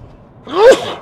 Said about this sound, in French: Hop là, l'avantage du direct, c'est que vous pourrez m'entendre éternuer euh, sur, euh, sur le podcast.